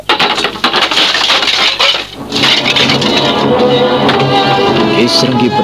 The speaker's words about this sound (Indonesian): Ia mengamuk. Kursi yang ada di dekatnya ditendang hingga hancur berantakan.